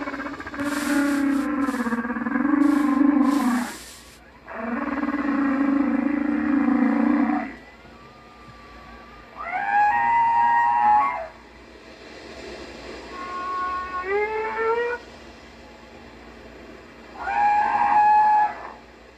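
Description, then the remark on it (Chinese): Whale song: two long, low, droning moans followed by three shorter, higher calls that rise and bend in pitch, each separated by brief pauses, with no one talking. “我们先听，嗯，我刚刚说的鲸鱼的声音。”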